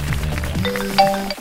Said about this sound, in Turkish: Pardon benim telefon çalıyor.